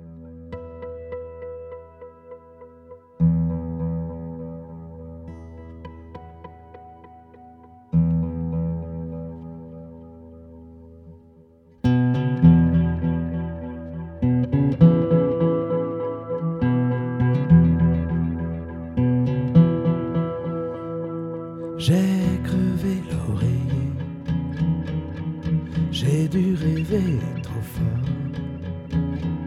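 A French rock song opens with held, chiming chords, then drums and bass kick in and the full band builds, with crashing cymbals getting louder toward the end. It stays instrumental, with no singing yet.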